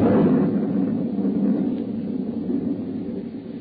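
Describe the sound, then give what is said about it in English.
A heavy thunder crash rolls out as a loud, deep, sustained rumble that stays strong throughout and fades only slightly toward the end, with no voices. “And then the lightning came again.”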